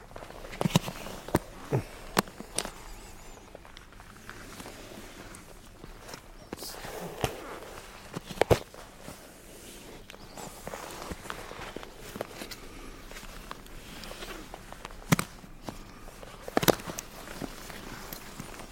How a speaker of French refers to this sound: Le bruit de cuir qui bouge quand on marche